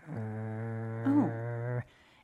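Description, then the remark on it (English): A person imitates a dog's growl: one sustained, low, rumbling vocal tone lasting under two seconds, with a brief rise in pitch and loudness midway, then it cuts off abruptly. “It started like like growling”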